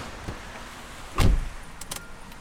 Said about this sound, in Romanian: Am de făcut oricum mai multe drumuri azi, a și început să plouă, așa că voi urca în mașină.